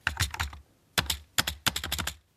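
Close, crisp keyboard typing in short bursts of rapid clicks separated by brief pauses, with no voices present.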